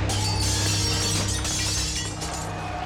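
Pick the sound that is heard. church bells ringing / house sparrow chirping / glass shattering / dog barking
glass shattering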